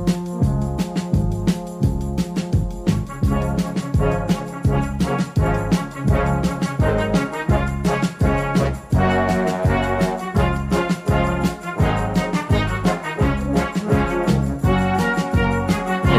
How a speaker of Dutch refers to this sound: dan komt dit melodietje komt iedere keer in het programma weer een paar keer terug